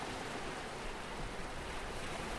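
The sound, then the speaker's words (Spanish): Ocean waves wash onto a shore in a steady, continuous rush of surf, moderately loud and evenly sustained without distinct breaks, with no voices present. “Estás a la orilla del mar.”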